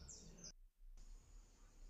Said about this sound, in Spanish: hay muchos pájaros, perdón, es de día